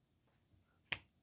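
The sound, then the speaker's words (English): A single sharp finger snap rings out in near silence, a bright crisp crack with a quick decay and nothing else around it, marking when the next song should start while deciding the spacing between songs on a vinyl record. “And then you both snap or clap or poke one another when you think that the next song should start.”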